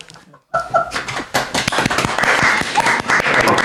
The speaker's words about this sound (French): Ah, c'est la première fois que je suis applaudi pour une chronique.